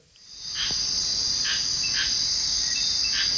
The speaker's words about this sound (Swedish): Det jag hör här är ju ljudet av eh, regnskog. Tänker att det är 100% luftfuktighet och det droppar konstant från trädkronorna.